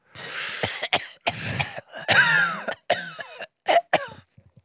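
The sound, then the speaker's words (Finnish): A loud coughing fit brought on by wheat: a rapid string of harsh, rasping coughs with brief gasping breaths between, tapering off into a few small throat-clearing sounds at the end. “Sori, pistää toi vehnä, pistää vähän yskittää.”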